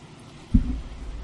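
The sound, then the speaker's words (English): A steady, airy whoosh of fans running continuously at a moderate level, interrupted by one brief low thump partway through. No one speaks. “No, it's my fans.”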